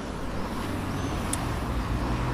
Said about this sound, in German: War das für die ASMR-Geräusche ein bisschen Verkehr aufnehmen? ja, genau. Wir hätten eben mal so ein bisschen die Atmosphäre aufnehmen sollen.